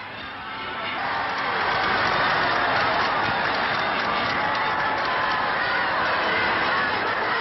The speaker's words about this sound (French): À Londres, M. Churchill annonce la bonne nouvelle. Today is victory in Europe Day. La foule britannique n'est pas si flegmatique qu'on le dit, et elle crie sa joie.